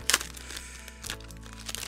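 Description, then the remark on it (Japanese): A trading card pack being ripped open: a sharp crackling tear at the start, then a run of crinkly foil rustling with another tearing burst partway through, fairly quiet overall and with no talking. “タック開封 ASMR 爆音。”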